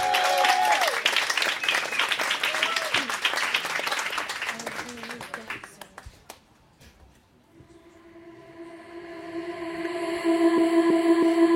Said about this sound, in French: applaudissements du Bel Air pour ouvrir cette résidence.